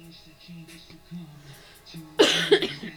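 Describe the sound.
A sudden, loud burst of harsh coughing, two or three rough hacks in quick succession, following a stretch of quiet, low voice.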